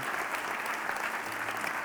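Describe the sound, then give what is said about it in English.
An audience breaks into steady, dense applause offered to God during a prayer, many hands clapping together in a continuous wash of sound for a couple of seconds. “We give, we give you a round of applause right now, God.”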